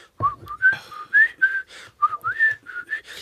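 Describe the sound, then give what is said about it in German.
A person whistles a short, lively melody, with a quick series of bright, gliding notes separated by brief pauses and occasional breathy onsets. “Ich habe auch so ein CD-Cover gemacht, wo ich einfach so flöte mäßig und dann mache ich so”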